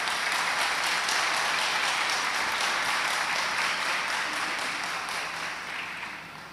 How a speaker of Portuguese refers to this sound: Pode aplaudir.